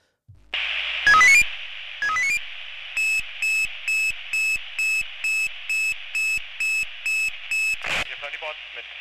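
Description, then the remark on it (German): A fire brigade alarm pager goes off loud, signalling a callout: radio static, two quick rising chirps, then a steady run of about eleven evenly spaced beeps before it cuts off. “Aber immer wenn dieses Geräusch geht, fahren wir zusammen.”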